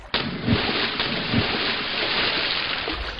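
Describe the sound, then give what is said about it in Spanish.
A sudden splash as someone jumps into the Arno river, followed by a steady rushing, bubbling underwater roar with a couple of deeper muffled thumps, continuing without any voices. “Bueno, pues aquí tengo internándose, como podéis oír ya, las burbujas del agua.”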